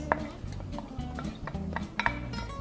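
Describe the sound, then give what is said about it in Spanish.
Shrimp, squid and mussels seasoned with sea salt and pepper being stirred and mixed in a pan before being added to vegetables, with a utensil clinking and scraping against the metal in irregular bursts over a low, steady background hum. “Mezclamos y lo vamos a colocar a nuestros vegetales.”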